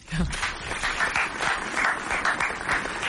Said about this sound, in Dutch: Maar ik denk namens ons allemaal even bij deze een heel groot applaus.